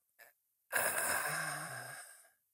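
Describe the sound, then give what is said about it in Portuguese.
A quick intake of breath, then a long, strained exhale that ends in a low voiced groan: a person imitating the effortful grunt of getting up from a chair. Fairly loud, with no other sounds. “quando te levantares de uma cadeira, faz um barulho, assim de esforço, tipo.”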